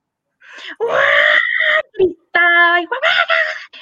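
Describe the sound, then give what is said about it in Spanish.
A person's voice imitates a dog's desperate screaming on its first walk wearing a collar, in loud, strained wailing bursts: a long, high, quavering cry, a brief gasp, then more piercing yelps. “La primera vez que yo le puse el primer paseo con collar, ese perro iba a morirse de tanto gritar.”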